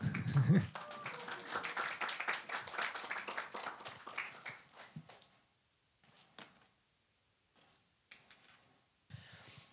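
An audience applauds in a dense burst of clapping that fades after a few seconds, leaving a few scattered claps and quiet room noise.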